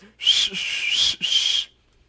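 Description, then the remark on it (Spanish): A single person whistles loudly and shrilly in three long sustained blasts with brief gaps between them. The whistling imitates a grandstand crowd jeering Ferrari driver Kimi Räikkönen after his crash. “Y toda la grada le empezó a chiflar de que...”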